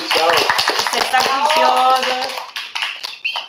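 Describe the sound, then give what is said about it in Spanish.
A short burst of applause, rapid overlapping claps from a small group, with voices calling out over it; the clapping thins out and fades near the end. “Un aplauso”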